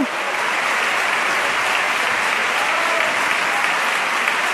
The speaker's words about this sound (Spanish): Continúa la ovación. Sonriente los oles al pregonero.